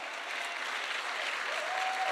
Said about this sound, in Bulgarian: Тая вечер има 400 човека тук и всички пляскат за Исус.